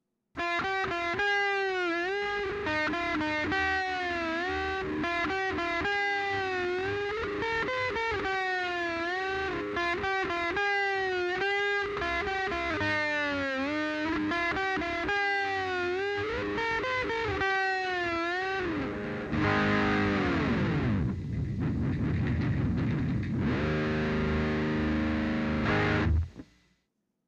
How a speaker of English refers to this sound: so I'll do some standard tremolo work and then end it with a dive bomb as promised.